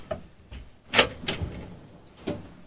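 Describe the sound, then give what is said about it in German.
A kitchen drawer or cupboard slides and knocks open, a few quick scraping clacks with short pauses between them, then one more thud near the end. “Oh. Schubladen.”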